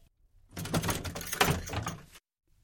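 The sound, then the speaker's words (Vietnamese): The door of a family home swings open with a rattling, scraping sound lasting over a second, moderately loud, with no voices over it. “Cửa vừa mở, đông men đã nghe thấy tiếng cằn nhằn của mẹ.”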